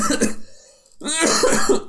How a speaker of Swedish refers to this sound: kan, kan, kan, man hosta rakt in i micken än vad du gjorde första gången? Ja, för, jaha, för den, kom, den kom så spontant.